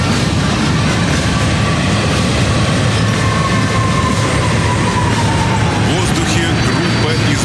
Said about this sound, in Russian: Пролетает строй истребителей пятого поколения Су-57, ведущий группы подполковник Владимир Волоцков.